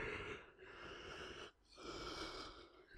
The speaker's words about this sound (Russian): Четвертый раз зевнул или сколько?